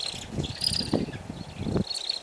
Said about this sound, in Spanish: ¿Escucháis? Este es el canto de la limoche común, uno de los buitres más peculiares que conserva nuestra ornitofauna vasca.